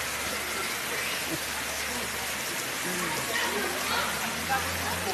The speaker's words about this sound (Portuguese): vem curtir porque a natureza está nos proporcionando muita chuva, ruas com muita água.